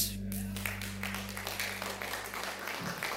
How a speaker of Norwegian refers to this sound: Gi dem en applaus.